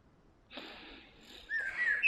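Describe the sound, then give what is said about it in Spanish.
A deep breath drawn in slowly, soft airy rushing that swells toward the end with a faint whistling edge, no talking over it. “Ah, que tomes una respiración profunda, así como yo ahorita, y puedas recibir, estar abierto o abierta a recibir todo eso que conlleva eso que se ha manifestado.”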